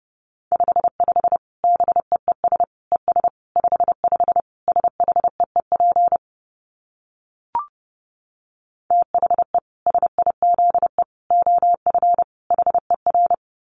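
Morse code at about 30 words per minute: a steady mid-pitched tone keyed in rapid short and long beeps, pausing briefly midway around a single faint click before the keying resumes.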